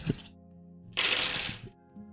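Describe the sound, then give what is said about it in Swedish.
A brief clack, then a handful of 11 dice clatter and tumble together for under a second, a dense rattle of small hard knocks with no talking. “Jävlar, så då har jag 11 det är typ nästan alla tärningar.”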